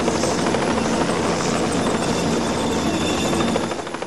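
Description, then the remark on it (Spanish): A helicopter passes overhead above a town square around six in the evening, green flares being dropped near a church; its rotor produces a loud, steady rhythmic chopping over a broad engine roar that eases slightly at the end. No voices are present. “Cerca de las seis de la tarde, un helicóptero sobrevoló la plaza y a la altura de la iglesia de Santiago soltaron bengalas verdes.”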